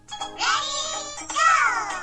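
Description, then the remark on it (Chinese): A voice imitates a bus's two-note door-opening chime as the bus arrives at a stop, sustaining a bright, tinkly first tone and then a second one that falls slightly in pitch, each held for about a second. “不信你听啊，公交车到站了，开门，叮当。”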